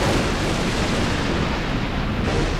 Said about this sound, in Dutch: De bliksemflitsen en donderslagen volgen elkaar nu steeds sneller op. Ze worden ook harder en de tijd tussen beide is steeds korter. Het onweer komt dus dichterbij, heeft opa me nog geleerd.